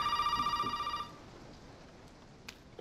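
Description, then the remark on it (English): A telephone rings with a bright, rapidly trilling electronic tone for about a second, then cuts off, leaving only a soft background hiss and a faint click or two. “That dad phone's ringing.”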